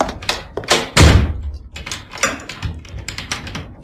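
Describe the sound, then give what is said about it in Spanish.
A door shuts with a solid thud, followed by a run of small clicks and rattles as a key turns in the lock. No voices, just the handling sounds. “Y cerró la puerta con llave.”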